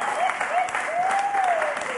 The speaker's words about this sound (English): can I give, give a round of applause for our sound? You know?